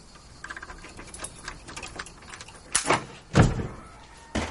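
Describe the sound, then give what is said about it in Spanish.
A key from a bunch works the lock of an abandoned house's door: a series of small metallic clicks and rattles, followed by two louder thuds and creaks as the door swings open, with no voices. “Abre y les cede el paso.”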